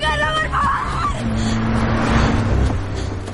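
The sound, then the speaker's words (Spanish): A car carrying a group of young men drives past without stopping, its steady engine rumble swelling and fading, with a low hum and faint background chatter throughout. “Pasan de largo sin percatarse de Silvia.”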